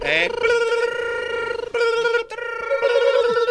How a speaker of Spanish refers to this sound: A ver, ahí están sonando las líneas. Ahí están sonando los teléfonos como locos.